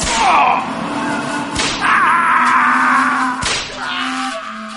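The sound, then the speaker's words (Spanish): A few sharp whip lashes crack out one at a time as punishment, spaced well apart, each a sudden loud snap over a continuous wavering, moan-like drone in the background. “Por cada falta, tres latigazos.”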